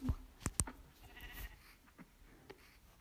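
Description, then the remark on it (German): A brief, fairly soft moo from a cow in a video game, with cows and a baby cow in view, amid a few sharp clicks and thumps, with no one talking. “Oh, dort sind Kühe. Oh, eine Babykuh.”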